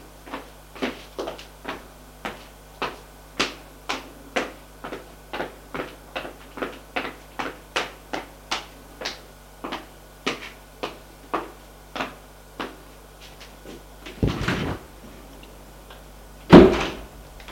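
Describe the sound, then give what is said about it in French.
A steady run of light, evenly spaced taps or steps goes on for several seconds as people leave an apartment in an apartment building, then a door opens with a rattling clunk and soon shuts with a louder, solid thud. “Ils sortent de l'appartement de l'immeuble.”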